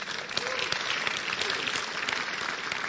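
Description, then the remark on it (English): An audience claps for Jesus during a short Bible study, a steady, dense burst of applause that holds at an even loudness for a few seconds, with faint murmuring voices underneath. “Clap for Jesus.”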